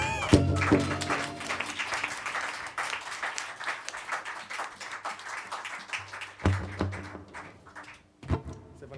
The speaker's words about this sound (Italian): Vi chiederei di fare un applauso per quelli che stanno a casa.